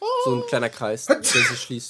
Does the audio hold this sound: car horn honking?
no